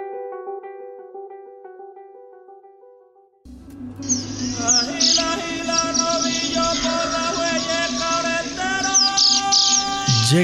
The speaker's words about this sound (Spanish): la puesta de sol y escuchas el canto de la corocora. Siente nuestros llanos orientales.